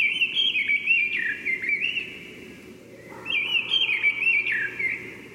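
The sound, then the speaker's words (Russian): A mistle thrush sings two loud, fluting whistled phrases, each lasting about two seconds with a short pause between, over a soft, steady low background rumble. “Послушаем, как поет Деряба.”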